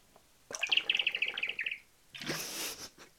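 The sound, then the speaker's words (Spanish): A large water bottle squeaks out a quick, bird-like trill of about a dozen high chirps as someone drinks from it, followed by a short hissing rush of air. “La metí en un pequeño perk, que para los que estáis viendo vídeo es esta, es enorme y preciosa, que cuando bebo es como si hubiese pajaritos.”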